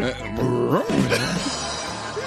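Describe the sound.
A person imitates a dog barking with a few loud, voiced yelps whose pitch rises and falls, delivered in quick succession over a couple of seconds.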